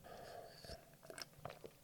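sipping water

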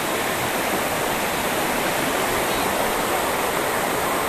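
flowing stream water

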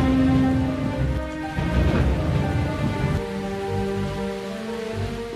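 heavy rain with thunder

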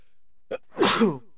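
sneeze

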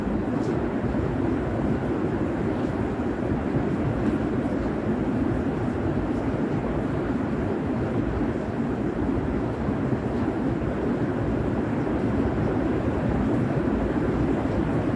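rain falling

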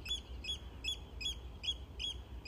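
bird calling

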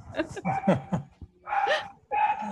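dog barking

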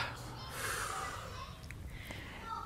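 deep nasal inhale

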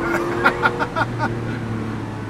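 car engine revving

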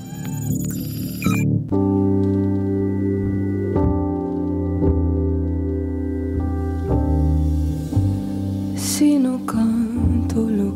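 soft

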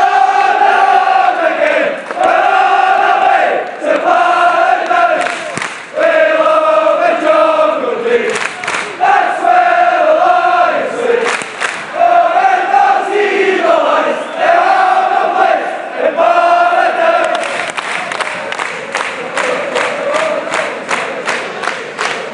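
football stadium crowd noise

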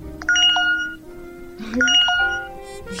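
phone message notification tones

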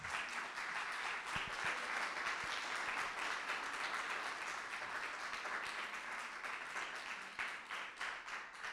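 applause

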